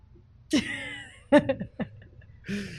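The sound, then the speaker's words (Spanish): A baby cries in short, broken wails, several fussy bursts with brief gaps between them and no one speaking. “Se escucha nuestro bebé llorando.”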